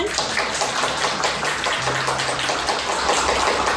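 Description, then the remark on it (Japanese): A burst of enthusiastic applause welcoming a special guest on the radio show Umi Raji. Many hands clap in a dense, crackling wash that holds steady and loud for about four seconds, with no voices over it. “大きな拍手お願いしま”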